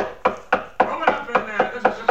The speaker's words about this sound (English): I was aware that somebody was knocking on a door, but it, it was several seconds before I located it. It was. It was at my door.